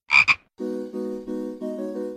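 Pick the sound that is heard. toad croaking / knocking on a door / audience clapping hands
toad croaking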